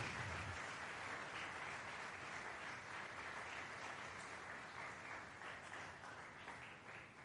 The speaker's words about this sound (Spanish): Démosle palmas al rey, pues.